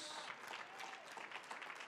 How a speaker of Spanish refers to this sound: Vamos, dale fuerte el aplauso a Dios. Ese es el Dios que tenemos.